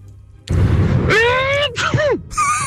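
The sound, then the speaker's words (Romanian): A short, breathy, noisy sneeze burst, followed by a few higher, whiny tones that bend up and down in pitch, then a brief hiss at the end. No one speaks. “Nu, nu, nu, asta strănută nu tușește”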